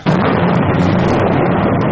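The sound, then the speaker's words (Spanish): A sudden, loud thunderclap from a terrible storm in the countryside bursts in and rolls on as a heavy, steady rumble that fills the whole two seconds, with no voices. “Sorprendióla una terrible tempestad.”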